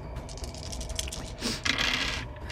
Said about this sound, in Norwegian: Det hørtes ut som mange terninger.